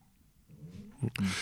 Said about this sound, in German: so, der Hund meldet sich. Der, der Hund, wir haben einen Hund hier. Der und Hund hier. Der Hund war sehr, sehr brav und jetzt will er wohin? Also er will nach draußen, das ist definitiv.